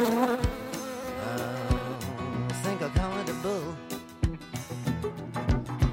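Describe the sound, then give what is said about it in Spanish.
A steady buzzing of a cloud of wasps in the press room of a sports pavilion, with wavering pitch filling the whole stretch, while low rhythmic thumps and tonal music sound underneath. “Y es otra cosa, es que el técnico eh, tenía que esquivar avispas en la sala de prensa del pabellón del Soto, del pabellón del Andrés Torrejón porque había una nube de avispas que poblaban esa sala de prensa.”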